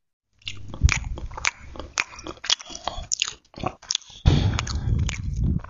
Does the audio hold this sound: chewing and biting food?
yes